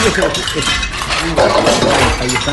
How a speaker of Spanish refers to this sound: Y yo aquí lavando platos por dos dólares.